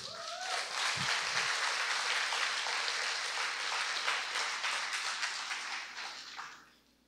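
audience applauding

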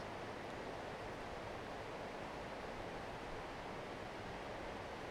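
water flowing

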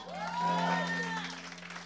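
audience clapping and cheering

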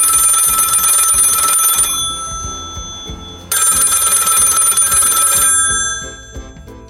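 telephone bell ringing

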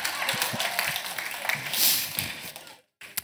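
applause

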